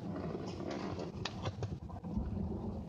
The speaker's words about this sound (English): I don't know if you can hear the rain in the background, but it's there. You hear thunder?